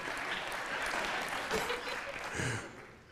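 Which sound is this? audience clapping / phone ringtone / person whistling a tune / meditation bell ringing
audience clapping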